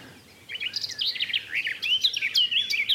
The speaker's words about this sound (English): it's uh, a bird that I always like to see before I make a, a, a definite ID because they do sound similar to a black cap. But I th- to my ears, the garden warbler's louder, a bit more fluid, and uh, the notes sort of end